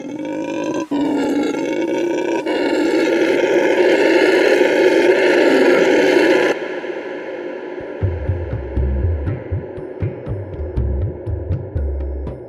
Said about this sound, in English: You know, howler monkey. It's really a powerful sound, and but it was almost like when you, whenever I'm hearing that, I knew I was doing something that I loved, and so that was it.